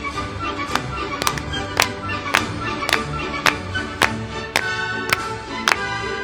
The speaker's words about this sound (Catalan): és molt cansat parlant fent palmes. Picant de mans és molt cansat parlant.